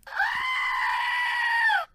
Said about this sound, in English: One is uh, my my screaming goat. I don't know if you can see it there. My screaming goat, and listen to him here